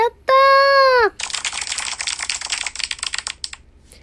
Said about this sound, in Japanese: 初めて拍手ボタン使ったよね。やったね、もう一回。